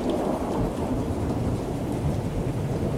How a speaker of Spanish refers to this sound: La lluvia persistía, pero se había apaciguado casi transformándose en una tenue llovizna.